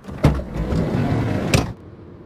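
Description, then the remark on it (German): A door is pushed shut: a sharp knock, a second or so of scraping rumble as it slides, then a firm closing thud before everything goes quiet. Fairly loud. “Tür zu.”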